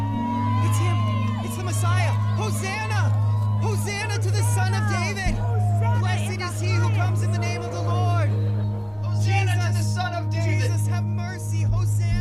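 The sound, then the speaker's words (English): A large crowd joining a procession shouts praise and calls out together in a continuous, overlapping din of excited voices, with a steady low droning hum pulsing underneath throughout. “The crowd joins the procession with shouts of praise.”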